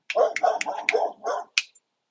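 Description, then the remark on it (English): A dog barks at a person passing by on the street, in a quick run of about six sharp barks in under two seconds, loud and alone, ending abruptly. “let them know my dog's really not that harmful”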